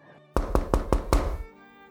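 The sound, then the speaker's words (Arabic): A young boy knocks on a door: five quick, evenly spaced knocks, fairly loud, each with a solid wooden thud, followed by quiet. No one speaks. “صرت أركض أشوف من دبو يدق الباب”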